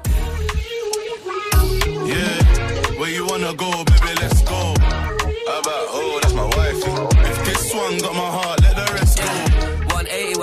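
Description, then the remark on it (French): A British rap collaboration track plays loud and full, with a punchy, steady kick-driven beat under a rhythmic male vocal delivering lines throughout. “une collaboration pardon 100% british que j'attendais du coup parce que j'avais retenu dans le teaser un petit sample”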